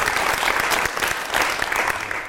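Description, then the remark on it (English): An audience including students applauds steadily, a dense wash of many hands clapping at once, sustained and fairly loud throughout without pause. “Well, you heard our audience. They were uh, they were going um, nuts.”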